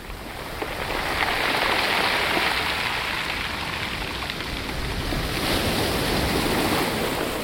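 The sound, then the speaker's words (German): Surf washes steadily over pebbles at the Needle Rocks in Tabarka, northern Tunisia, a dense, hissing crackle of rattling stones that swells slightly and stays loud throughout, with no voices. “Wenn die Brandung auf Kieselsteine trifft, wie hier bei den Nadelfelsen in Tabarka in Nordtunesien, dann ist das ein Ohrenblick, den man gerne mit nach Hause nehmen möchte.”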